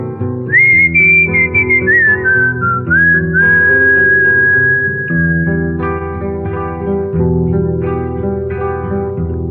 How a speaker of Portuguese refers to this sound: Navegante tem cantiga que aprendeu no mar um dia. Qualquer rota que ele siga, se não canta ele assobia.